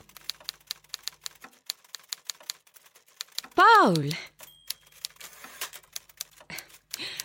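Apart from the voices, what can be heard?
typing on a typewriter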